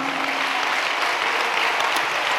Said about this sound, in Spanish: Eso, dale un aplauso al Señor, hermano.